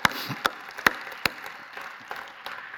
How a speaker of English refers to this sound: That's a good place to clap your hands and shout unto God. Hallelujah.